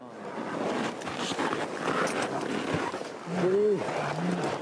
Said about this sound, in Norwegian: Vi hører lyden av moderne klatrere som beveger seg oppover det som nå heter Hillary-stegene. De tolv meterne Hillary var den første til å komme seg opp.